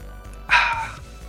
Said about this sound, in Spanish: Como el clásico de destapar una cerveza.